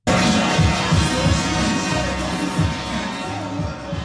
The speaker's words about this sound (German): Ein Ort voller Menschen und lauten laufenden Traktoren, der Sonneberger Bahnhofsplatz. Jeden Montag treffen sich dort nämlich eine Vielzahl an Bürgerinnen und Bürger, um ihren Sorgen und Bedenken gegenüber der aktuellen Regierung Gehör zu verschaffen